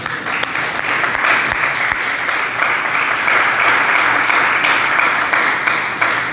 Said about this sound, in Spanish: Gracias te damos, Señor, por darnos 32 años. Le damos el aplauso a Jesús.